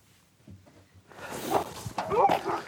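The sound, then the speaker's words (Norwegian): A pack of sled dogs in Finnmark, Norway, breaks into a loud, overlapping chorus of barks and yelps after a quiet opening with soft thumping steps, the noisy din continuing until the end. “Det kom litt snø, og det kunne se lovende ut for alle de som skulle ut og trene hundespannene sine i Finnmark, men så smeltet alt snøen bort igjen.”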